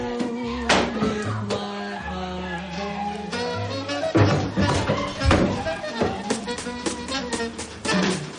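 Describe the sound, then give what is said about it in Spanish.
Heavy thumping knocks from upstairs neighbours land as a handful of irregular, dull thuds, moderately loud over a steady tonal musical background with low bass notes. “Tom se pone una camisa y se asusta al oír golpes que emiten sus vecinos de arriba.”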